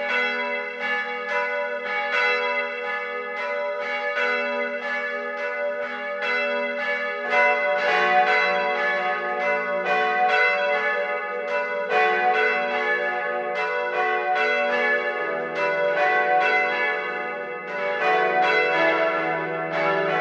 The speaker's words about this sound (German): Es ist 12 Uhr. Das Mittagsläuten kommt heute aus St. Ottilien in Oberbayern.